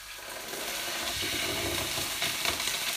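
Water sizzles and hisses steadily in a hot pan on a stove hotplate, giving off a lot of steam, a dense crackling spatter that grows slightly louder and stays continuous throughout, with no talking.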